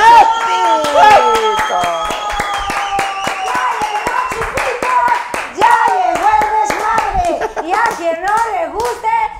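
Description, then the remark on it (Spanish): Audience applause made of steady, rapid clapping that keeps a loose rhythm throughout, with excited voices calling and shouting over the top of it. “¡Aplausos a la”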